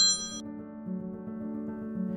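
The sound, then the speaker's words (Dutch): A mobile phone notification chime rings out once, a bright tonal ding whose sparkling overtones fade quickly while lower tones linger steadily. It is clear, with no one talking over it. “Dat is de, de moderne tijd die ons even inhaalt. Ik heb dat ding, ik had dat ding natuurlijk uit moeten zetten.”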